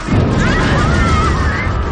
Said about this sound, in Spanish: ¿Qué ha sido eso? Parece que ha habido una explosión. Cámara 4, vuélvete, averigua qué ha sido eso. Por el sonido.